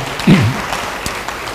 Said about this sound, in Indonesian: Beri tepuk tangan yang baik bagi dia.